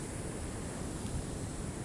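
A steady, dense roar of stormy surf at a beach, with waves breaking continuously against the shore, broad and wash-like with gusty storm wind mixed in, no voices.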